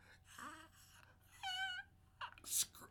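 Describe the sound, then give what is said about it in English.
A voice mimics a shrill, drawn-out scream, rising into a strained wail for about a second before breaking off, followed by a short sharp hissing burst. “like blood curdling screaming, mm-hmm.”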